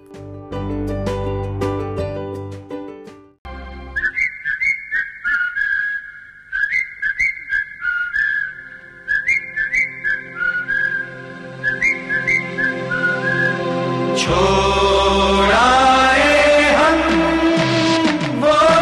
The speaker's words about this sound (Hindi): आइए ये गाना सुनते हैं इसी फिल्म से